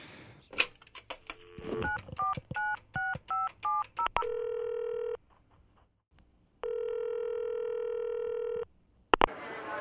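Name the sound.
telephone dialing tones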